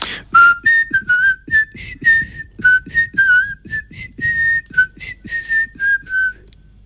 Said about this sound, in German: Pass auf, ich pfeife jetzt einfach mal den Frühling.